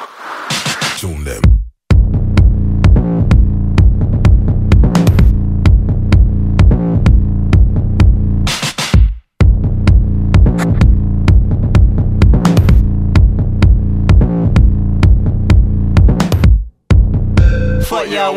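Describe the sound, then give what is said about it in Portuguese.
Heavy, driving film soundtrack music for a car chase scene in South Korea, with loud, steady pounding beats over a deep, sustained bass line, dropping out for brief breaks a few times before slamming back in. “temos aí os beats mais fortes, que são. Eles meio que se conectam com aquelas cenas de, de ação do filme, né?”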